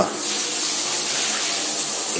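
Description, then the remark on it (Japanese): Water rushes steadily into a bathtub as the inside of the tub is washed during bathroom cleaning in a home unit bath, a continuous hissing splash that holds an even loudness throughout with no pauses and no voices. “今、あの、風呂、風呂掃除と言いますか、あの、浴槽の内部を洗っております。”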